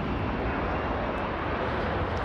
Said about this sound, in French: en sortant de l'avion Royal Air Force qui atterrit.